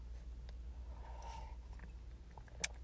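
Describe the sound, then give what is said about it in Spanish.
A soft slurping sip from a mug, followed by a brief sharp clink as it is set down, with a low background hum. “Y epa, no le he dado un sorbo a mi taza, ya”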